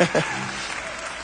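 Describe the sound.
An audience breaks into steady applause, a dense wash of many hands clapping at even loudness, with a brief voice heard over it at the very start.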